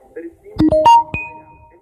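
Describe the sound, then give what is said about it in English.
A distorted, ghostly EVP voice recording from Destination Truth: a few garbled, warbling syllables in quick bursts, followed by a lingering electronic ringing tone that fades out. It is fairly loud, with no clear speech. “That was an EVP.”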